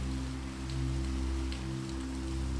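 Steady rain patters down in a dense, continuous hiss, with a low, constant hum underneath and occasional brief drips standing out. No voices are present.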